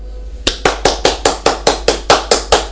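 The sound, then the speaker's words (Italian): A short round of applause: about a dozen quick, evenly spaced hand claps, fairly loud, starting after a brief pause, with no talking. “beh l'applausino ecco.”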